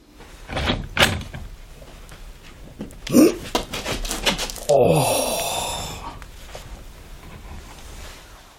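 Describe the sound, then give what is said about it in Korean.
A bathroom door is handled: a few sharp knocks and rattles of the latch, a firm thud, then the creaking swing of it opening, trailing off into quiet. “화장실 문을 열고 들어가자 죽음의 냄새가 훅 끼쳐왔다.”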